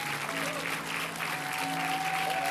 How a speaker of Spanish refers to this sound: Y me gustaría en esta mañana que le diéramos un aplauso fuerte a nuestros héroes de casa, que son voluntarios, que sirven al Señor desde temprano